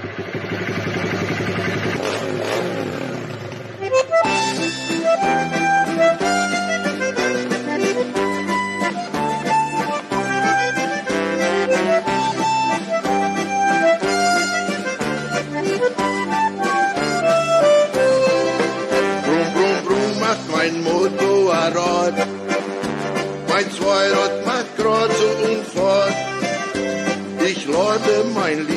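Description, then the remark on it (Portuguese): A German folk song about riding a motorcycle with one's sweetheart opens with a brief, softer sustained intro before the full band enters, playing a bright melody over a steady, bouncy beat that stays loud throughout. “Und es geht weiter mit schöner deutscher Volksmusik.”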